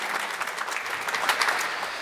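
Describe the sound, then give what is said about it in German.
Warm applause from a live audience in Munich, a steady wash of many hands clapping at moderate loudness throughout, with no voices standing out above it. “Das ist der warme Applaus aus München.”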